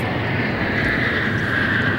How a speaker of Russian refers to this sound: Ил-76 появляется в самом центре столицы. Ил-76МД способна доставить более 40 тонн грузов в любую точку мира.